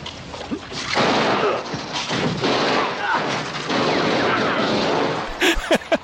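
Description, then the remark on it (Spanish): Loud gunfire bursts through a dense, roaring din of noise, with a few sharp pistol shots cracking out in quick succession near the end, in a film scene where a terrorist at a stopped car ducks, draws a pistol and fires two shots. “Y dice, aquí la tiene, se agacha, saca una pistola y le pega dos tiros.”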